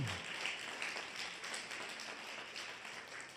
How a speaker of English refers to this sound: Now, give the Lord a good clap offering. Come on, just give him a good clap offering.